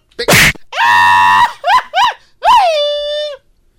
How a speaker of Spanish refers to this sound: Ay, ahora sí. Ahora gritó